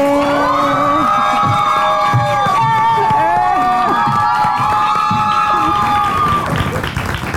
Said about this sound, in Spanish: Un fuerte aplauso para Jackie Bracamontes.